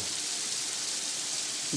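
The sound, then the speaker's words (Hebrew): Steady rain hisses continuously, a dense even wash of patter with no breaks over a couple of seconds, at moderate loudness, with no one speaking. “גשם?”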